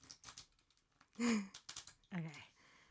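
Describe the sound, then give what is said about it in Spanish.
Playing cards being taken out: quiet papery rustles and light slaps in short bursts, interrupted by a couple of brief breathy vocal sounds like a gasp or sigh. “ver si ya se compraron las cartas. Déjenme sacarlas aquí. Ahí lo están escuchando.”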